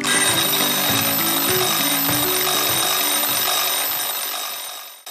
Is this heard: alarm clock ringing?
yes